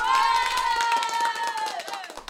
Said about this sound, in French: Peut-être qu'il fantasme et qu'il imagine que ces applaudissements lui sont destinés.